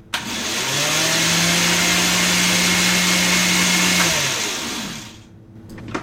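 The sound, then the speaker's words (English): A blender motor whirs up, blending saffron and water until smooth, and runs at a steady, loud buzzing hum for about four seconds, then winds down and stops, with no one talking. “so, we do the saffron and water, buzz until smooth, and then after that, with the motor running, we're going to be drizzling in the olive oil until the whole thing emulsifies.”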